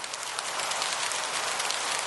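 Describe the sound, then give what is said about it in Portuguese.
Recorded rain sound from the website Somdechuva.com.br: steady rain patters down in a dense, continuous hiss, with fine droplets pattering evenly. It holds a constant level throughout, with no voices present. “Você tem a sua chuva eterna.”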